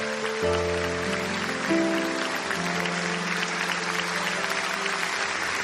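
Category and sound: crowd, audience applauding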